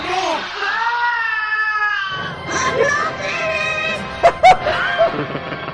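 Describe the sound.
A cat meows in a long, wavering yowl, then lively voices and a few sharp knocks continue behind it.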